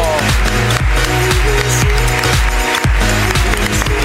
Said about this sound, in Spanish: Ahí está, aplauso para él. Vamos.